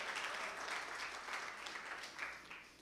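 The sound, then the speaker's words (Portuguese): An audience claps steadily for about three seconds in a round of applause for a group of brothers who have just spoken, a dense crackle of many hands with slight swells, fairly loud and continuous with no voices over it. “Uma salva de palmas para esses irmãos, queridos.”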